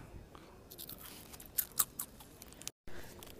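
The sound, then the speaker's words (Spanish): Someone chews crunchy food, with irregular wet crunches and bites, a few sharper ones standing out midway, and a brief cut to silence near the end. “lo que están escuchando masticar es Andrea”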